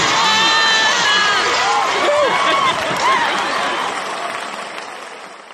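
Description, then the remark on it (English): A loud crowd bursts into dense applause with whoops and cheering shouts over the clapping, sustained for several seconds before fading out toward the end. “Wow, that that, that was long. Crowd goes”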